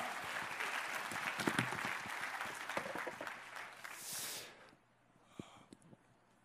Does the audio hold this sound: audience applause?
yes